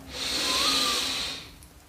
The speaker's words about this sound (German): Wir nehmen gemeinsam einen tiefen Atemzug und atmen ein.